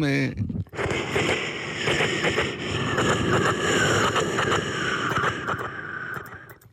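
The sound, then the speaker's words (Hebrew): A person vocally mimics a passing train live on air, producing a sustained, loud rumbling whoosh with rhythmic clatter that holds steady for several seconds before fading slightly at the end. “רכבת חולפת.”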